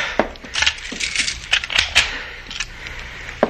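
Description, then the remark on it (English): Keys jangle and scrape as a door is locked, a quick run of sharp metallic clicks and rattles ending with a firm click of the bolt. No one speaks. “I will lock it.”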